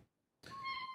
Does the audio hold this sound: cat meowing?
yes